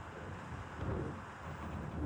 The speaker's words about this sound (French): Un bête canapé en cuir beige et usé, des murs d'un blanc plus pur que de la neige, et un silence oppressant, terni simplement par le vent qui souffle dehors.